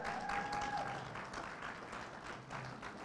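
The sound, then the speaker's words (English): An audience breaks into sustained applause for the speaker's wife on her birthday, a dense wash of many hands clapping steadily and fairly loudly throughout, with a faint thin tone briefly audible near the start. “Would you give her another round of applause?”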